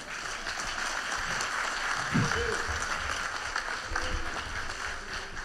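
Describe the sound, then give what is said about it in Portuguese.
An audience applauding steadily for the brothers present, a dense, even wash of many hands clapping at once that holds at a fairly loud level for several seconds, with a few voices faintly underneath. “Uma salva de palmas para os irmãos aqui, ó.”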